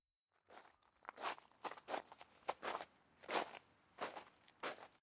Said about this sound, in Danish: Pludselig kan han høre nogen komme gående i sandet.